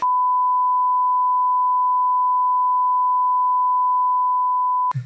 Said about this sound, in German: Wir können das äh, auch rausschneiden und wegpiepen. Das war. Äh, Sag mal, ich mach so ein Piepen. So. Eins, zwei, drei.